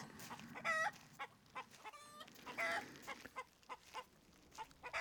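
A flock of hens clucks and squawks in a busy henhouse, short harmonic calls overlapping in an irregular chatter, with a rooster joining in among them; no one speaks.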